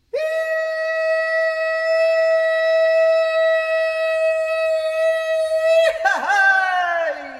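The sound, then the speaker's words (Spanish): The characteristic shout of the rajaleña from the Huila department of Colombia, a call that opens the celebration: one loud, high voice holds a steady cry for about six seconds, then breaks into a wavering, falling yodel-like ending. “Este es el grito característico del rajaleña. Con ese llamado comienza la celebración.”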